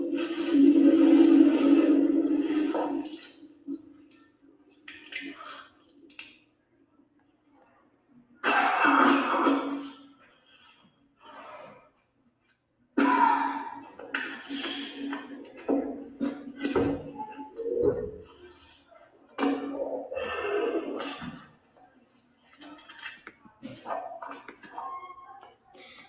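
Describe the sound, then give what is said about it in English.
Rustling movement and scattered sharp clicks, broken by a hard, forceful cough, with uneven bursts of activity separated by short quiet gaps. “Rustling, clicking, and a hard cough.”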